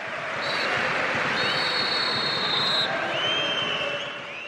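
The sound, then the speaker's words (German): A stadium crowd of about 30,000 roars steadily at halftime on a 28 °C day, whistling at the Werder team; several shrill whistles cut through, one long sustained whistle and a few shorter rising ones, over a dense wash of voices with no single speaker. “So sehr, dass es zur Pause ein paar Pfiffe für die Werder-Mannschaft gibt.”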